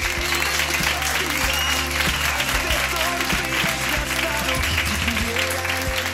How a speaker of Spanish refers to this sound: Así que el primer mm, aplauso de la noche que sea para ellos.